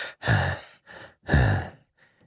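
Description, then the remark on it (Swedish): A voice imitates heavy panting heard over a phone call: two loud, drawn-out breathy exhales alternating with quicker, softer inhales, fading at the end. “Och så var det bara tyst och så hörde man någon som flåsade”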